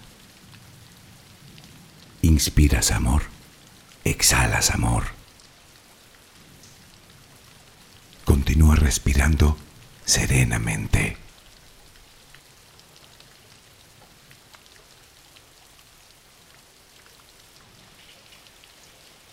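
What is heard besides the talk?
steady rain falling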